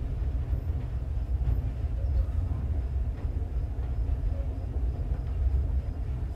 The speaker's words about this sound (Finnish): Haastavin osuus junamatkasta on, kun vauhti hidastuu ja vaunut alkavat törmäillä toisiinsa. Tällaista ei käy länsimaisissa junissa. Tuntuu siltä, kuin olisi kollarissa viiden minuutin välein.